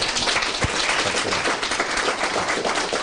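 An audience applauds warmly, many hands clapping in a dense, steady crackle that holds at an even, fairly loud level for the full few seconds, with no voices over it.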